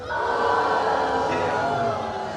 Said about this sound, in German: müsst ihr ihn sofort bestrafen mit einem lauten Buh.